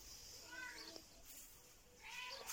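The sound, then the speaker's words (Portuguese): A cat named Tibita meows twice, a drawn-out, wavering call followed by another rising meow a moment later, clear over a soft background hiss. “Ela é meio pertica. Estão a ouvir?”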